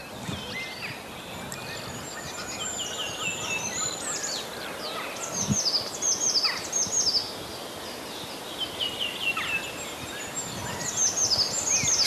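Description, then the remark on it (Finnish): Eurasian blue tit singing outdoors in a light wind, repeated bright, high trills and chirps over a soft, steady background hiss, with bursts of song spread across the whole stretch. “Sinitiainen suorastaan innostuu.”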